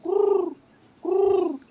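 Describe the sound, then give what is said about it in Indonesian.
Two drawn-out hooting calls, each about half a second with a short pause between, voiced clearly in imitation of an owl, slightly warbling and with nothing else around them. “burung hantu atau apa gitu”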